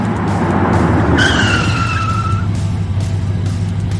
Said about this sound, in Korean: 차는 화면에 나타남과 동시에 브레이크 소리를 내며 멈춘다.